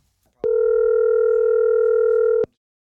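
A single two-second burst of a telephone ringback tone from an outgoing call, a steady, loud electronic hum that starts and stops abruptly, heard alone with no talking.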